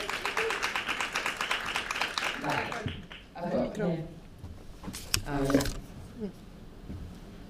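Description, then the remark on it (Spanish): A crowd applauds in a dense burst of clapping as someone is invited back onto the stage; it fades out after a few seconds, then a voice speaks briefly over a quieter background with occasional scattered claps. “Le damos una ronda de aplausos de nuevo.”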